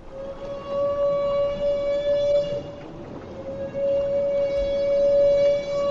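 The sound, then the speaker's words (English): A humpback whale's feeding trumpet: one long, steady, brassy tone that wavers briefly midway, heard loud over a constant wash of underwater noise. “Humpback whales make this trumpet sound only when feeding, but why they do it has long been a mystery.”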